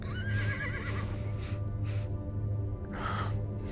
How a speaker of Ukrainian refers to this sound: У голові дзвеніло коняче іржання, яке переливалося то заліва, то справа.